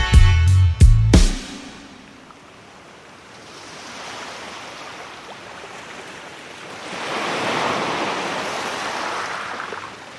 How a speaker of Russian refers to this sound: Звуки, которые вы сейчас слышите, это бьющиеся о берег волны Черного моря.